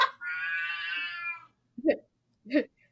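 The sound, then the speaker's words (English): A cat lets out one long, drawn-out meow lasting over a second, followed by two short, clipped meows spaced apart, clear with no talking over them. “you tell him, kitty cat.”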